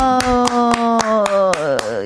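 Steady rhythmic applause for a show's producer (PD), about eight evenly timed claps, plays over a loud sustained vocal note that slowly slides lower in pitch and wavers with vibrato toward the end.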